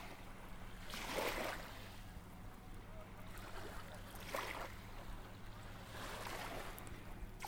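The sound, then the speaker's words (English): Gentle ocean waves wash in and recede in slow swells, about three surges spaced a few seconds apart, over a steady low rumble. “The sound of the waves feel like whispers.”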